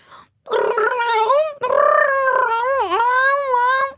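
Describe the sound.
A person vocally imitates the drawn-out yowl of a female cat in heat, a loud, wavering moaning cry in two long sustained bursts with sliding pitch, alone.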